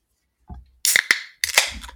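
A beer can being opened: a soft thud, two sharp metallic clicks of the tab, then a loud hissing burst of escaping gas. No one speaks.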